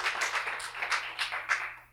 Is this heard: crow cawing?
no